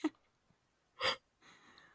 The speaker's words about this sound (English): But yeah, all this talking about. You're yawning oh. again.